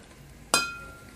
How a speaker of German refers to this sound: So, ein Stößchen äh, würde ich sagen, äh, ne? ja, ne? Stößchen.